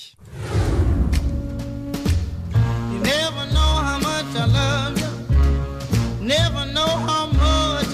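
A song plays with a sung vocal line over a deep plucked double bass, crisp finger snaps marking a steady beat; the music is full throughout.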